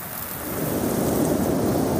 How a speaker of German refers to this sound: Brüllend fegt ein Sturm von Süden über die Ebene.